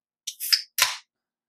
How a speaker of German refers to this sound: Einmal ein äh. Dosengetränk auf, nicht, dass ihr euch wundert, falls es gleich klickt.